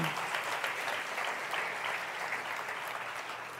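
An audience applauds the Lord steadily, many hands clapping in a dense, even roar that holds at a constant loudness throughout, with no voices standing out.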